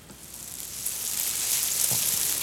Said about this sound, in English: They've got a lot of background noise in, in, here as well, which is kind of quite a nice background noise. Oh, there's maybe there's even recordings of cicadas and stuff. Yeah.